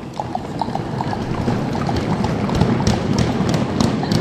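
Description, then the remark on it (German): Horse hooves clip-clop in a steady, quick rhythm as riders set off on horseback, several animals moving together, with a low rumble of movement and faint rustling underneath. “Alle mal auf die Pferde, seid auf den Pferden und los geht's.”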